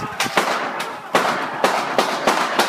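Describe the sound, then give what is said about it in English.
A rapid, irregular volley of gunshots rings out, heard out on a street, about eight sharp cracks in under three seconds, each trailing off into an echoing wash with no voices present. “when the gunshots ring out.”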